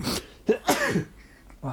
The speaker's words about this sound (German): Oh, Gesundheit. Mir ist grüner Schleim aus der Nase geflogen.